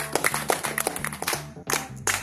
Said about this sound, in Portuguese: Uma salva de palmas, certo?